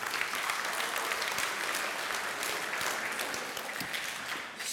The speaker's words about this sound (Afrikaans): Ehm um, aan al die mammas, baie baie gelukkige Moedersdag. Ons is lief vir julle, ons is trots op julle en ons waardeer julle baie. Hoor, gee vir die mammas 'n lekker hande klap toe.